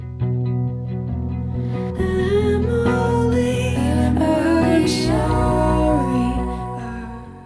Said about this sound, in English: I recognize that delicate, distant, kind of quiet sound. It sounds like a guitar, but also not.